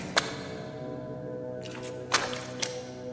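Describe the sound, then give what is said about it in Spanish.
Three sharp, splashy steps of rubber boots through water running down ramps, unevenly spaced, over a steady background wash of flowing water and low hum. “Aquellos pasos sonaban como si alguien caminaba hacia mí, haciendo el típico ruido de cuando las botas de hule pisan sobre el agua que corre por las rampas.”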